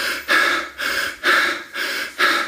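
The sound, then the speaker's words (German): Quick, deep panting breaths, about six strong inhales and exhales in an even rhythm over a couple of seconds, airy and forceful with no talking; part of a breathing exercise of 30 deep breaths in and out. “und wenn man dann diese 30 Mal tief ein- und ausatmet, dann ist es wirklich hecheln und äh, alle anderen werden es auch hören, weil man atmet ungefähr so.”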